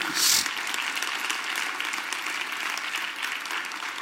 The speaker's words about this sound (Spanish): Ha sido Dios bueno en tu vida. Dale una gloria a Dios. Dale un aplauso al Señor si Dios ha sido bueno.